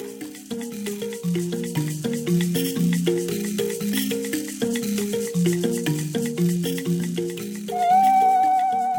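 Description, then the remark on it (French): Archival recording of Tuareg drumming from Niger: a steady, rhythmic pattern of struck notes cycling through a few low pitches, with a high sustained tone, like a voice or whistle, entering near the end. No one speaks. “On part au Niger écouter les Touaregs jouer du tambour”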